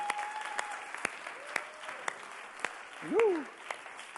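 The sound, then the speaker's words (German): An audience at a church service applauds with dense, steady clapping at moderate volume, a few sharper claps standing out, and a brief rising cheer or whistle from the crowd near the end. “Komm, lass uns dafür auch nochmal einen Applaus geben.”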